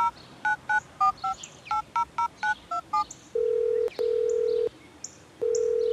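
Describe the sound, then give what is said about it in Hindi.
A phone number is dialed: about a dozen quick keypad tones beep in an uneven rhythm, followed by long steady ringback tones with short gaps, clear and close with no talking. “मैं मैं, मैं अभी फोन करके ना उसे अपोलोजाइज करता हूँ”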